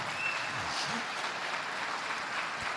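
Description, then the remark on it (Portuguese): A crowd claps steadily to applaud God for the rain, a dense wash of many hands applauding together at an even level throughout, with no voices standing out. “Vamos aplaudir a Deus pela chuva.”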